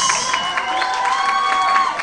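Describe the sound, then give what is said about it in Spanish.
An audience at a live show bursts into steady applause for a DJ from Honduras who opens the show, mixed with cheering and whistles, a dense, continuous wash of clapping and high shouts that stays loud for the whole couple of seconds. “A ver, creo que le debo un fuerte aplauso a Jerry, el, de Honduras.”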